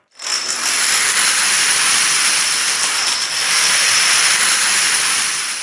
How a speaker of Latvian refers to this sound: Tā bija domino kauliņu krišana. Šī skaņa ir daudzkārt izmantota Guinness rekordu uzlabošanai.